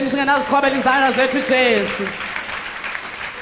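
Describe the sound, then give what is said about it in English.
A church audience claps their hands for Jesus amid raised voices and cheering, the voices strong at first before giving way to a steady wash of applause that carries on to the end. “amen amen why don't you clap your hands for jesus”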